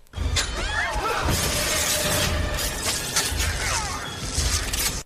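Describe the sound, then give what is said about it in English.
A web-shooter thwip effect made by casting fishing line with a marshmallow at its end: a loud, rattling hiss with brief whistling zips near the start and end, sustained for about five seconds with no talking. “Fishing line with a marshmallow at the end of it.”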